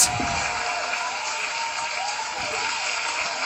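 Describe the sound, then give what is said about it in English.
A clapping sound effect: dense, continuous applause that holds a steady, fairly loud level for a few seconds, with faint tonal wisps underneath and no talking. “So, can we just get your clap soundbite?”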